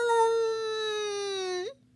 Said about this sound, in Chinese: 野牛宝宝没了奶嘴儿，嗯，放声大哭。这一声嚎叫把皮迪克吓了一跳，嗷！